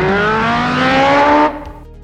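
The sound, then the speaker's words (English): The high-speed engine of the Street Hawk all-terrain attack motorcycle from the 1985 TV show roars loudly, its pitch climbing steadily, then cuts off abruptly and leaves a faint lingering tail. No one speaks. “an all terrain attack motorcycle designed to fight urban crime, capable of incredible speeds up to 300 miles an hour and immense firepower.”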